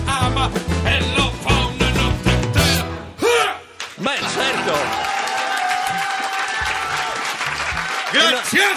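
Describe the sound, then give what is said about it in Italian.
A song with a thumping beat, performed on stage as a number, breaks off, then a dense, steady wash of audience applause takes over for several seconds while a voice talks above the clapping. “Ma non vi vergognate ad applaudire un numero così?”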